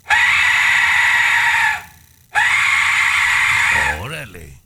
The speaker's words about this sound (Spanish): es un sonido hecho del el hueso, es el sonido de la muerte pero, oye, compañera, la mera verdad sí suena como esos demonios de las películas de terror,